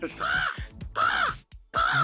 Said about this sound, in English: Those are our birds.